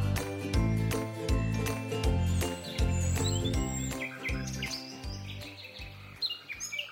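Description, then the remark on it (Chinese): Bright, high bird chirps and tweets flit over a steady, rhythmic musical backing with pulsing low notes and tinkling tones, no voices present. “你们听见了吗？有清脆的鸟叫声诶。”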